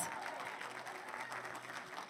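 An audience breaks into sustained applause, dense clapping from many hands filling a large room, with faint cheering mixed in throughout.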